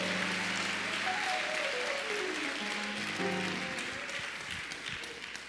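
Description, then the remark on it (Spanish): An audience claps loudly and steadily, dense crackling applause filling the whole clip, with a sustained tonal line, like an organ or keyboard, rising and falling underneath. “Aplauda fuerte, haga algo, esto es lindo.”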